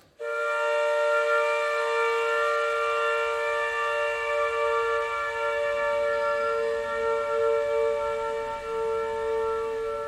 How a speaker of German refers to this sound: woran ich mich noch immer nicht gewöhnt habe, ist, dass ähm, zum Schichtbeginn dreimal die Sirene hier läuft.